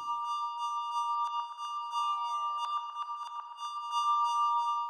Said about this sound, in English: Well, I tried a little 808 cowbell in this track which is super cheesy on its own. But by adding some reverb, delay, and softening the attack, I made it into kind of a background synthy sound.